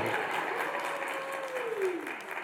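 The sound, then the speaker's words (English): A crowd claps steadily for a couple of seconds, dense and even applause with a faint whistling tone sliding downward partway through, as an audience applauds a young woman being recognized for her accomplishments. “Everybody give her a round of applause.”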